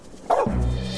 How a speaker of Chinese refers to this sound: 我听见狗叫了。